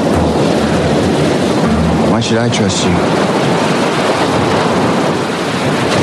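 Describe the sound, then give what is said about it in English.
A steady, loud roar of wind and waves surrounds a boat out on open water, with a person briefly speaking partway through over the constant rush. “And since they just ran away from me on my own boat”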